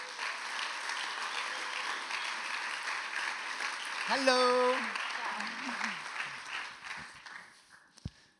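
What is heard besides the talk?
audience applause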